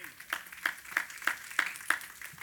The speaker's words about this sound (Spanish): Den un aplauso al Señor esta mañana.